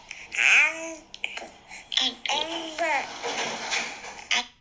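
A baby girl babbles and coos in a string of high, sing-song vocal bursts with rising and falling pitch, fairly loud, broken by short pauses and a faint wet, watery background.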